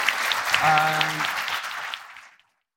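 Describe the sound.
A crowd applauds with dense, steady clapping, a brief voice-like whoop rising over it early on, before the clapping thins out and fades to silence.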